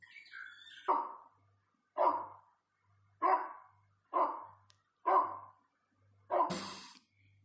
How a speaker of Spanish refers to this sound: Amaneció ese día con el canto de los pájaros tan fuerte que hasta el cachorro dormilón de la casa despertó de un salto y comenzó a ladrar.